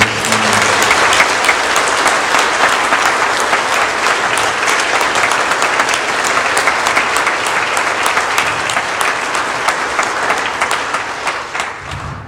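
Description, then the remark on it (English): An audience gives a hand clap of praise to Jesus, breaking into sustained, loud hand clapping, a dense wash of applause that holds steady for about ten seconds before thinning slightly at the end. No one speaks over it. “If Jesus is the only one that you want to be remembered, why don't you uh, give him a hand clap of praise?”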